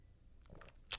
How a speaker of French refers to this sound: Désolé, j'ai pris un petit, euh, une petite gorgée.